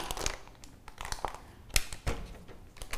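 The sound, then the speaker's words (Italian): A soft plastic bottle being squeezed and crumpled, giving off a close, irregular run of crackling crinkles and sharp snaps over about three seconds, with no voices. “Mi diceva la, la, la, la bottiglia è molliccia, va benissimo. E ti ritrovi con una cristianità molliccia. Cerchi di prendere, ma si accartoccia.”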